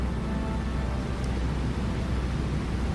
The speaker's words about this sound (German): Die Rotorblätter des Flugzeugs fangen langsam an sich zu drehen, werden immer schneller und das Flugzeug beginnt sich zu bewegen.